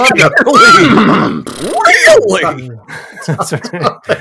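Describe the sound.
A person imitates a horse's whinny, a loud, wavering, trilling vocal neigh lasting about a second, followed by more voiced sounds and people talking.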